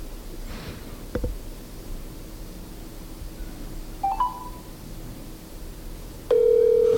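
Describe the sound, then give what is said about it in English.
Quiet background hiss, a couple of brief electronic beeps, then a steady, loud telephone ringback tone starts near the end as an outgoing phone call begins ringing. No one speaks. “And we're ringing.”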